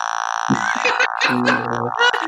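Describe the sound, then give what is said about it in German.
A low, dark otamatone note buzzes in short, stuttering bursts over a steady whine, sounding rather like a fart. It is fairly loud, and there is no talking. “Das hat einfach nur ein etwas düsterer Ton, ey. Ja, aber trotzdem ist wie ein Furz.”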